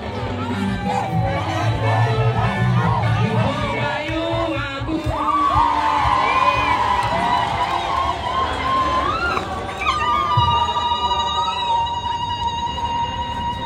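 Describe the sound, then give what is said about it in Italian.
Tens of thousands of women in South Sudan ululating together as they listen to a speech, high warbling trills rising and overlapping continuously over a loud, dense roar of cheering and shouting throughout. “è stata ripetuta più volte insieme alle parole enough is enough e tutte le volte c'è stato un incredibile ululato da parte delle decine di migliaia di donne che ascoltavano.”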